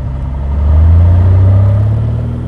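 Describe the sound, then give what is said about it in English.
A loud, steady low drone of an airplane engine in flight over Prince of Wales Island, humming with a deep constant tone that swells slightly midway and then holds, with no voices. “And all it takes is a plane flight over Prince of Wales Island to see whose taste won out.”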